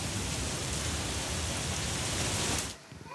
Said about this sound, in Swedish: Slutar det regna nu eller? Regnar det fortfarande?